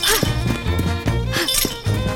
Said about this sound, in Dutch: Dag meneer, waarom rammelt u met die sleutelbos? Heeft u hulp nodig?